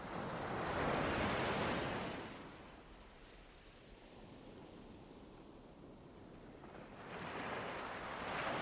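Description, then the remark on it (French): Gentle waves wash onto a beach, one surge swelling and fading before another rolls in near the end, a soft steady rush of surf with no voices. “Vous êtes là, debout sur cette plage magnifique.”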